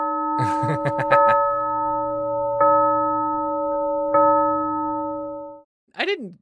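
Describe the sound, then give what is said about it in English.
A bell rings out, struck about three times, each strike leaving a long, steady, sustained tone that hangs in the air; a brief voice cuts in right after it stops. “Ring the bell.”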